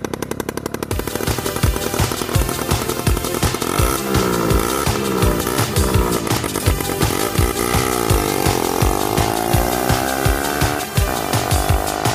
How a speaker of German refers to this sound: Er fährt mit seiner Sachsmofa zum Sparmarkt nebenan.